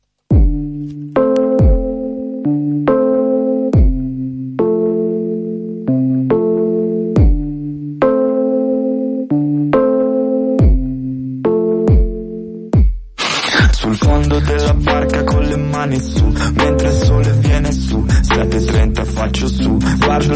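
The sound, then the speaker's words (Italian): A song opens with a steady, repeating pattern of clear plucked or keyboard notes, then a full band with drums and dense instrumentation crashes in loudly for the final stretch. “Vi consiglio di ascoltare bene questa canzone.”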